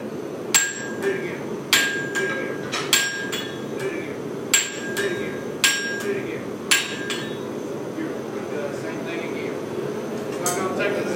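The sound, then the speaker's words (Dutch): Sharp metallic hammer blows ring out on a large metal railroad spike being made into a knife in America, struck in a steady series of about eight hits with short pauses, over a low background hum. “Dat zijn van die grote metalen pennen. En die eh, maken ze hier om tot een mes.”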